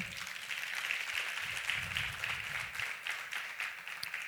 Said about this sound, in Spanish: Dan un fuerte aplauso al Señor.